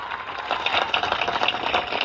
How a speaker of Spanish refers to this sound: El aplauso fuerte.